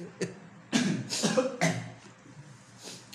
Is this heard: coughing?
yes